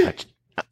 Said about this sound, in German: Gesundheit.